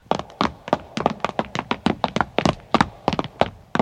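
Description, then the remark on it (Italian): A book is pushed and a hidden passage mechanism clunks open, revealing a staircase leading down: a fast, steady run of about twenty solid wooden thunks and taps over a few seconds, with no voices. “Spingere o tirarlo fuori sto minchia di libro? Ma prima provi a spingere!”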